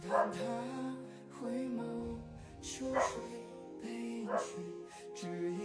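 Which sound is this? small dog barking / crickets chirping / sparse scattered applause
small dog barking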